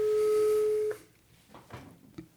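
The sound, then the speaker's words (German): A single steady telephone ringing tone sounds clearly for just under a second, then cuts off, leaving faint quiet clicks and rustles on the line. “Wir beschließen zu telefonieren.”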